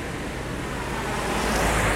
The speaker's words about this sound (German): Und ich blicke auf ein kleines hutzeliges Brückchen und auf einen kleinen Wasserfall